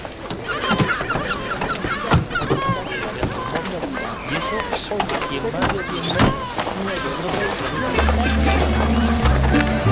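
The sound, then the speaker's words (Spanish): Seagulls call repeatedly in loud, overlapping squawks, with a steady engine-like rumble building toward the end and voices mixed into the background. “Uf, no sé yo lo de la buena suerte, no lo tengo tan claro, maldita gaviota.”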